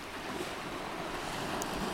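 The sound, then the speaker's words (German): Steady wash of water lapping against the rocky shore of a bay with white to pale yellow sand, heard from a small rock right at the water's edge, continuous, with a soft breezy hiss over the top and no distinct individual splashes standing out. “Ich sitze gerade auf einem kleinen Felsen direkt am Wasser.”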